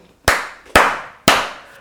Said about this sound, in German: Ich weiß nicht, ob das irgendjemandem etwas bringt, aber jetzt einfach mal klatschen.